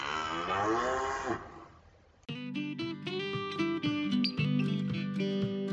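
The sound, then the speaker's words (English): A single long, loud moo from beef cattle housed in a winter paddock on a farm, about 13 head and one calf, wavering in pitch before fading out, after which a bright instrumental tune with plucked notes begins. “I am coming to you today from our um, beef paddock, our winter paddock, where our beef cattle are being housed.”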